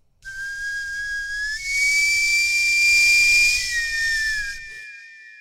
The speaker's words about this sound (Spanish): bueno, bueno, son las eh, nuevas cortinillas. Espero que estén cumpliendo su función bien, que nos estén.